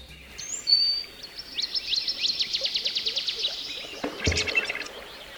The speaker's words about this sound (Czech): tentokrát jsem našel stránku tree.fm, kde můžete poslouchat zvuky lesů po celém světě